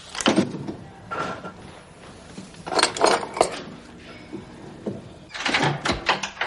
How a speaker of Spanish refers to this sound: La mujer va hacia un mueble y saca unas llaves de un cajón.